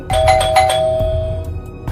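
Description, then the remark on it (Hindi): A doorbell rings with a bright two-tone chime, its clear tones sustaining and slowly fading over a low background rumble, with no talking during the ring. “दरवाज़ा मत खोलना दरवाज़ा मत खोलना प्लीज़”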